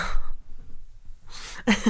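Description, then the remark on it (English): A dog snoring, with a few rough, breathy snores separated by short quiet pauses, the last one louder and more rasping. “I was going to say the dog snoring as well. I hear the dog snoring.”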